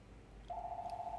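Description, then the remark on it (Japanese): A telephone rings with a steady electronic tone that starts partway through and holds unbroken to the end, fairly loud and clear over a quiet background, with no talking. “電話がかかってきてしまいですね。”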